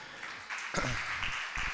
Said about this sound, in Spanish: ponte de pie, hijo, que te vean, que sepan que yo estoy orgulloso de mi sobrino, denle un aplauso.